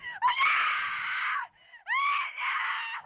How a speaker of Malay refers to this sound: tengah dekat dapur tiba-tiba dengar anak terpekik kuat sangat